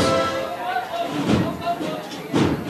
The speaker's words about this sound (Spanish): pues pasando justo delante nosotros de la puerta del convento que se va a abrir en cuanto que esté parada delante la Virgen de las Lágrimas, ahora se están abriendo esas puertas.